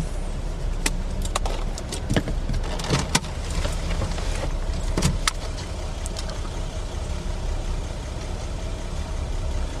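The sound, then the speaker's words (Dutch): A car engine idles steadily while the car stands still, running unevenly after a visit to the garage, a low continuous rumble with scattered sharp clicks and rattles over it for the whole stretch. No one speaks. “Mijn auto is bij de garage geweest en nu loopt hij niet meer zo stabiel.”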